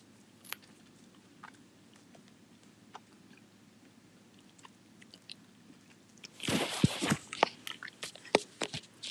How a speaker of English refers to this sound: Can you hear me chewing? it's audible on there too. It's um, either that or my breathing.